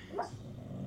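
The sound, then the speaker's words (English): A dog, Lola, lets out one soft, muffled bark while dreaming in her sleep, a brief sleepy yip that fades quickly into a low, steady background hum with no one speaking. “Uh, if y'all can hear that, that's Lola in the background, dreaming and her and sleeping, having her doggy dreams.”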